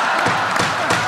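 A gavel strikes three times at a steady, even pace, each sharp knock cutting through a dense wash of crowd-like background noise.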